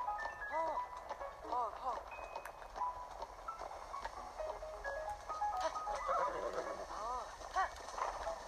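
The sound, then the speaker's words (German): Horse hooves clip-clop in a steady rhythm while riding, with a voice talking over the hoofbeats for most of the time. “Ohne Pferd fällt man da runter. Man kann auch nicht schnell reiten.”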